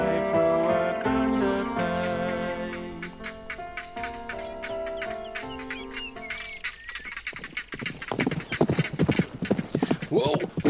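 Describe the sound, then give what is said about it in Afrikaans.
A black horse's hooves clip-clop in a steady rhythm, getting louder toward the end, with the horse whinnying over a sustained tonal background earlier on. “Oeh, die swart perd is gewillig pa.”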